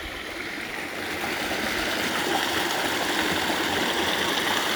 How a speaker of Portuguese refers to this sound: E o som da queda d'água também, né? vou chegar mais perto para vocês ouvirem.